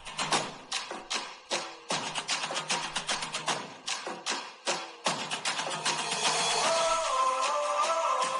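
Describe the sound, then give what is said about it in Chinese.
The 2010 World Cup official theme song, opening with loud, punchy rhythmic beats and sharp percussive hits, then swelling into a fuller, sustained melodic passage toward the end. “大家听到的是二零一零年世界杯官方宣传曲”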